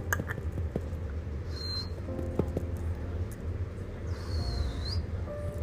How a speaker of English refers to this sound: yeah my attempt at whistling sound okay